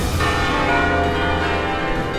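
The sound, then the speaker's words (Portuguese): Church carillon bells tolling from the towers of a church in Brazil, as they do daily at 12:00 and 18:00, in a dense, continuous wash of overlapping ringing tones, loud and sustained throughout with no voices. “Do alto das torres, os carrilhões dobram, sempre às 12 e 18 horas, enchendo de emoção cada um dos visitantes que chegam e partem a todo momento.”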